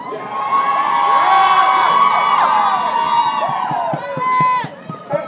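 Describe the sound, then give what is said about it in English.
A crowd of protesters gathered in a circle shouts and cheers together about the children, many raised voices yelling in a loud, sustained din, with sharp rhythmic claps or thumps breaking through near the end. “I kind of squatted on the ground in the middle of this weird circle, this kind of cipher they had created to uh, just yell about the children.”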